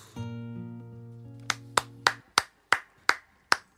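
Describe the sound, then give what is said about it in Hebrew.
A sustained musical chord rings out, then an audience claps hands in a steady, even rhythm, about eight crisp claps, each clearly separated with no talking. “כפיים כן, לשיר לא.”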